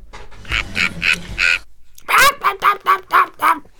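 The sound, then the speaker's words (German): A voice mimics a parrot with a run of squawky, nasal bursts, first four low and gravelly, then after a brief pause about six shrill, rapid chirping calls, fairly loud. “Lucky, der Papagei, den, den ich perfekt imitieren kann.”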